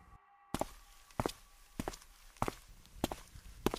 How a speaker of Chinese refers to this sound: 这时，我听到了高跟鞋清脆。而又有节奏的，踏，踏，踏的声音。